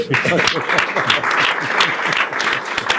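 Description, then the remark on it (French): An audience applauding steadily, dense overlapping claps sustained at a fairly loud level throughout, with some murmuring voices mixed in beneath the clapping. “On peut d'autant plus t'applaudir, en effet, on tient à le préciser, tu n'as aucune subvention.”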